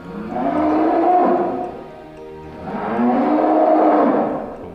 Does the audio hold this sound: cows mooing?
yes